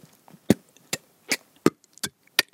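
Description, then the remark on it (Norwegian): A voice repeatedly produces sharp ejective p pops, made by closing the lips and raising the larynx to build overpressure in the mouth, about six crisp bursts spaced roughly half a second apart, fairly loud, with no talking in between. “Og da får du en lyd sånn ja, Først så lukker jeg leppen, mm. og så løfter jeg strupehodet. Ved overtrykk i munnen.”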